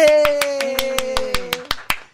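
Steady, evenly spaced hand claps, about eleven in quick succession, crisp, while a voice holds a long, slowly falling tone underneath, like improvised applause made by the speakers themselves in place of a sound effect.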